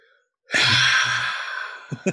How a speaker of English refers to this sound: I hope I hope the podcast could hear that deep breathing that I was doing.